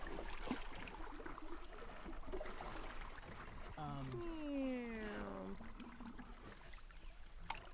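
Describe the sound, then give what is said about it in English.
A small boat navigates a shallow river, with a steady rushing wash of water and engine noise throughout and a whining motor tone that swoops downward in pitch midway through. “He's having a hard time thinking of questions while he's busy trying yeah. to navigate this shallow river.”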